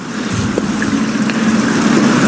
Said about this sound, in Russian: Сейчас стоим на деревянном помосте, а под нами ручей.